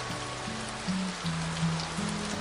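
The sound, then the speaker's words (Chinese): Steady rain falls in a continuous hiss with no breaks, while soft, sustained low tones hum underneath. No one speaks. “下雨了，你还好吗？”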